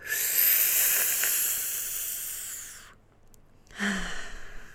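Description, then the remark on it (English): A long, airy inhale drawn through pursed lips, like sucking air through a straw, hissing steadily for about three seconds, then a short pause and a softer breathy exhale. “You breathe through your mouth like you're sucking the air through a straw and see how that feels.”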